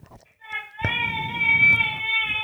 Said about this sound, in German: Oh, ich glaube, sie schreit Papa.